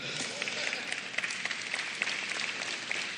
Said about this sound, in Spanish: Muy bien, un aplauso fuerte